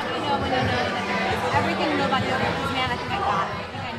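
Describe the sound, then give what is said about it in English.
A busy restaurant fills with a steady wash of overlapping crowd chatter, many voices blending into one dense, fairly loud babble with no single speaker standing out. “Your friend will blend in with the rest of the sounds in the restaurant.”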